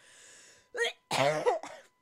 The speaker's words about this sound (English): Excuse me. getting really passionate. I got a cough.